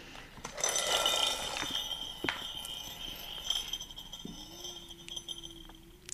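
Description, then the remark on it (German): A spinning decision-finder wheel, turned by hand, ticks rapidly at first. Its light, sharp clicks thin out and slow as it winds down, and a low steady hum enters near the end. No one speaks. “also dreh, also, dreh mal am Rad. Man hört schon. Das ist so ein bisschen wie Roulette.”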